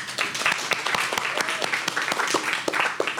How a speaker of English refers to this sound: So, we can get a round of applause for ….